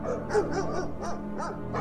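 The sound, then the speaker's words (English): Two large dogs bark in quick, overlapping bursts, loud, with some higher yips and whining mixed in and no voices, greeting a man with a bag arriving by car at a large mansion. “A man edges the car, holding a bag, and is greeted by two large barking dogs.”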